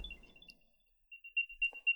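An Apple AirTag on a set of keys, triggered with Play Sound from a phone, chimes: a thin, high-pitched electronic tone that pulses in a quick series of beeps, getting louder toward the end, with faint low rumbling at the start and no talking.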